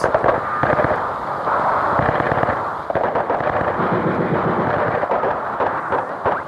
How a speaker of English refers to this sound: It's October 1968. Ten days before the Olympic Games, students are demonstrating in Tlatelolco Square in Mexico City. Suddenly, gunfire erupts.